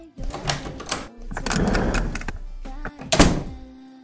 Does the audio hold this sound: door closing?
yes